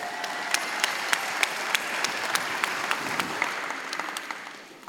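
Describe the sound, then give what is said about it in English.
A round of audience applause, dense steady clapping from many hands with sharper individual claps standing out, holding level for several seconds before beginning to fade at the end. “Um, that felt a weird round of applause on my part because I well, sort of it like...”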